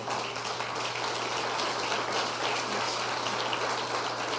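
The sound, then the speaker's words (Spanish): A crowd gives a loud round of applause to the Lord, clapping loudly and steadily, a dense wash of many hands applauding together for several seconds, with a faint low hum underneath and no voices. “Dale un fuerte aplauso al Señor.”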